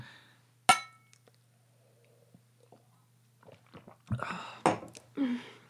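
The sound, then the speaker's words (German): Glasses clink together once in a toast, a sharp ring that fades quickly. Quiet follows, then soft drinking and handling noises over a low steady hum. “Ja, Prost.”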